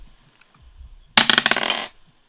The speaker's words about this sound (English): could you roll a, a, dice, please, for perception?